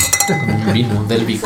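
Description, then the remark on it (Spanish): Wine glasses clink together in a toast of "Salud" near the start with a bright ringing tone that lingers, followed by a voice talking over the fading ring. “Que Pues tu poder brindar Salud.”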